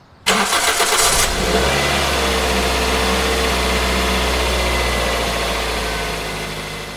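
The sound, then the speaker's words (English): A car engine cranks and catches with a loud burst as the driver sets off for work, then settles into a steady, rumbling run that fades slightly at the end. No one speaks. “I got up, grabbed a quick shower, got dressed, walked and fed the dog, and then hopped in my car to get to work.”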